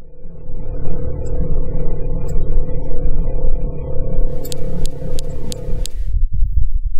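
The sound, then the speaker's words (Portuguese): Audio recorded on Mars by a NASA rover: a steady, deep rumbling drone, with a brief run of sharp, evenly spaced high clicks partway through before the rumble drops off. No voices. “E aquele que a gente tocou antes foi gravado diretamente de Marte, de verdade, pelo Jeep que a NASA deixou lá.”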